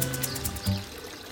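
Water splashing steadily from the Stravinsky Fountain, a continuous hissing rush that holds an even level throughout, with a faint low hum underneath.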